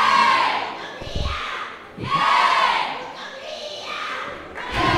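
A group lets out a loud, rousing battle cry, voices shouting together in repeated surging waves, with a few dull thumps underneath, close and energetic.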